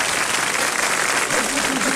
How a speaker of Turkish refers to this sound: Alkışlar da bizi soyanlara gelsin o zaman. Alkışlar.